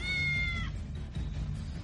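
A single high, thin cat meow lasting under a second, heard over a steady low background rumble that continues after the cry ends.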